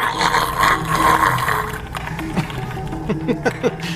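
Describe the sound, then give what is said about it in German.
A voice imitates a small robot vacuum suddenly spinning wildly in circles and only sucking: a loud, rough, whooshing hum for nearly two seconds, then a series of quieter, sputtering bursts with short rising chirps. “Plötzlich fängt das kleine Maschinchen wie wild an, sich im Kreis zu drehen und äh, saugt eigentlich nur noch.”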